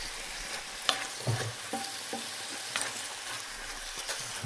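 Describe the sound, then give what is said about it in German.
Mild chicken or vegetable broth sizzles in a hot pan while being stirred. A steady hiss is punctuated by scraping and a few soft clinks of a utensil against the pan. No one speaks. “Ich nehme dann schon mal so milde Hühner- oder Gemüsebrühe dazu.”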